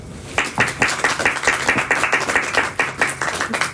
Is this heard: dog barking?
no